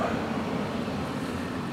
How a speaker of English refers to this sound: yeah, you hear the car drive by.